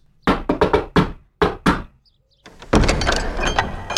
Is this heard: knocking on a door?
yes